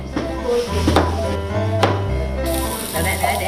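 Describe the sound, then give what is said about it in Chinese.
A knife slices zucchini on a cutting board as elderly people with dementia cook at a care centre class run by Tzu Chi University of Science and Technology in Jialin Village, Hualien, giving a few sharp, irregular taps against the board beneath a steady musical backing that stays louder than the cuts. “从把櫛瓜切片到亲自下厨炒菜，都难不倒这一群阿公阿嬷。”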